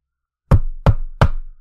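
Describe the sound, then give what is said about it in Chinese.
A man knocks three firm knocks on the door of a house with a vegetable garden, evenly spaced about a third of a second apart, each a sharp thud with a short resonant tail, after a brief silence and with no voices. “丈夫在一旁看到妻子几乎要流下来的口水，再想到快要出生的玫瑰，只好硬着头皮上前敲门。”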